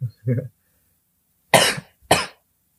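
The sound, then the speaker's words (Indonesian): Two loud, harsh coughs caused by ice, spaced about half a second apart, following a couple of brief low voiced sounds at the start. “nah ini ini batuk karena es ya”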